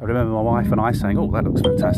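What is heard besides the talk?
phone notification chime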